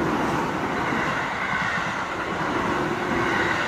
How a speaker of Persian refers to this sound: فکر کنم قطار نگار رسید